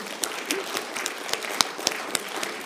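An audience applauds steadily, a dense wash of many hands clapping with a few sharper individual claps popping out above the crackling texture. No one speaks.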